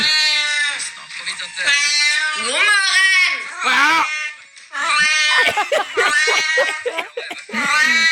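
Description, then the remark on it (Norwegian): A voice imitates a cat meowing with several loud, drawn-out, wavering meows, broken by a brief spoken word and short pauses, re-enacting a listener's Snapchat video of a cat lying on a tiled bathroom floor warming itself, then getting up at a 'good morning'. “Det er en katt som ligger på baderomsgulvet, tror jeg.”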